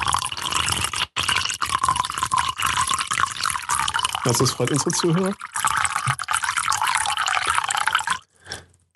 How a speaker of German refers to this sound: Oh, unsere Zuhörer dürfen jetzt auch noch hören, wie ich mir Wasser in meine, in meine Tasse gieße.